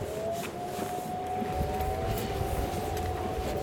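Air raid sirens in Amsterdam, Almere and Muiden go off at noon on the first Monday of the month, heard across the water on an island, holding a steady, drawn-out wail continuously over a constant rumbling background of wind and ambient noise.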